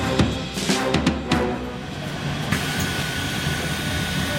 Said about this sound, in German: Ich bin in einen Bus gesprungen, damit ich auch jetzt wirklich alle Fortbewegungsmittel in Paris durch habe und bin ins sehr schicke sechste Arrondissement von Paris gefahren.